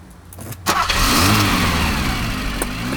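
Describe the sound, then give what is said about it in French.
The engine of a stolen estate car in a company car park cranks with a few short bursts, catches, and revs up into a steady, loud running roar. “Il ne fallut qu'une dizaine de minutes pour démarrer un autre véhicule et reprendre la route en direction de la Belgique.”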